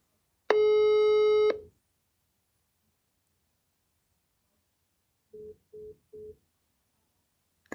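A phone call gets rejected by the person being called: one long harmonic tone, then after a pause three short, evenly spaced busy beeps, fairly loud, with no voices.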